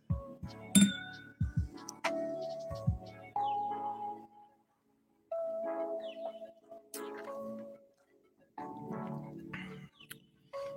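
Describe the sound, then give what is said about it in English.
Glasses clink together in a toast, several bright taps that ring out with lingering tones, coming in scattered bursts with short pauses and a few soft thuds, no talking. “Glass one. Fusion Series one. Cheers, guys.”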